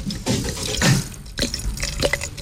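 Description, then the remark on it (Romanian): Champagne being poured into a glass at a radio microphone, a bubbly fizzing splash with a few gurgling surges over about two seconds, no voices. “Dragii mei ah, Facem asta la microfon ca să-i uh, necăjim pe cei afla, care ne ascultă în trafic Oriunde vă veți afla Să încercați să nu beți șampania”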